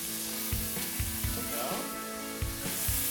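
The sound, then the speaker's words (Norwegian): Twenty sausages sizzle steadily in plenty of hot oil in a pan, a continuous crackle with occasional soft thumps and clanks of cookware, no talking. “Nå hører vi eh, pølsene steke her.”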